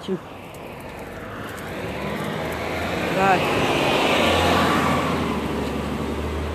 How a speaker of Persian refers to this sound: بله خیابون اتوبوس رد میشه ببخشید